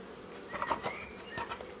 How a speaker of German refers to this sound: Ja, man hört's. er hat gerade quasi ähm, einen Bienenstock aufgemacht und ähm, ja, guckt da gerade rein.